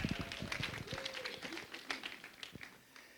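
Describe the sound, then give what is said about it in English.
Light, scattered applause from an audience: many irregular hand claps overlapping into a steady patter that fades slightly toward the end, with a faint murmur of voices underneath. “yeah, you got a little bit of applause.”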